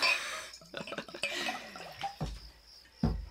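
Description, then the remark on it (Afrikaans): Rooibos tea being poured into a glass, a splashing, trickling stream followed by a couple of sharp glassy clinks near the end, with no talking. “En op daardie noot skink ek tog maar vir ons 'n glasie rooi is uitstelling bos in.”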